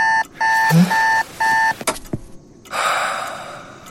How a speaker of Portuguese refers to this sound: Quando finalmente dorme, parece que o despertador tocou em seguida.